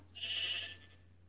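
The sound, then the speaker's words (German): A single short sheep bleat in a video game, clear, fading out after about half a second over a faint, steady low hum, with no talking. “Schaf.”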